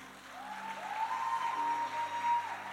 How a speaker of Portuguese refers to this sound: Uma salva de palmas para os nossos atores.